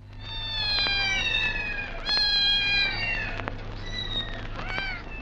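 A domestic cat (Felis catus) meows repeatedly in long, drawn-out, wavering calls, fairly loud, with barely a pause between them over a faint low hum and no talking.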